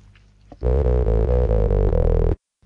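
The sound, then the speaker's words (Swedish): A short, loud musical sting used as an intermission sound in an interview, marking where the phone call dropped and was redialed, with sustained harmonic tones and a few rhythmic pulses lasting under two seconds, then cutting off abruptly into silence, with no voices. “Men för tydlighetens skull, så att du kan följa den röda tråden i intervjun, så har jag lagt in ett litet eh, intermission-läte som låter så här.”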